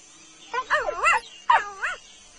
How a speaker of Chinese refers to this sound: 现在把手放在耳朵上，听听看有没有棕狼的声音。如果你听到棕狼的声音，就说棕狼，